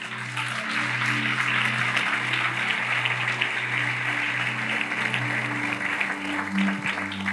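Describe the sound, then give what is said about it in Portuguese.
An audience applauds steadily and densely for the whole stretch, a thick wash of clapping hands, while low sustained keyboard chords hold underneath. “Se é para aplaudir, aplaude, irmão.”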